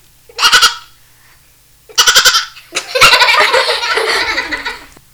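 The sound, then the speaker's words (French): A person imitates a goat with two short, quavering bleats, then breaks into loud, sustained laughter that fills the rest of the moment. “non, mais je crois que tu sais faire la chèvre aussi.”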